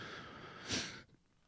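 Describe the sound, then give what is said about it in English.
A male dog gags and retches as if about to vomit, with raspy, breathy heaving that swells into one harsher burst before cutting off, fairly faint and heard alone without talk. “Oh my god, my dog sounds like he's about to puke.”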